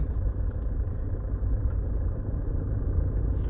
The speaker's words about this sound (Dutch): ik hoop dat de opname goed is, want ik praat terwijl ik rij en ook nog zonder microfoontje.